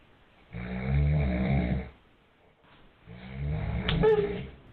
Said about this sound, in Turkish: Çin'de anne ve babasının yanında yatıyordu bir bebek. Henüz uyuyamamıştı. Derin uykudaki babası ise horluyordu.